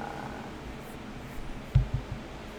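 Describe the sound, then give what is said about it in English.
A male cat purrs close to the microphone in a low, steady rumble while being held still so he doesn't pull the microphone cord out, broken near the end by a couple of brief thumps and rustles of handling. No one speaks. “I'm just holding the cat still so he doesn't pull the cord out.”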